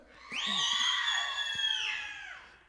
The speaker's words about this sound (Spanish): A ver, a ver, solo las chicas gritonas, ¿vale? Grita como quieras, a las tres. Una, de, despláyate, en serio. Dos, tres, grita.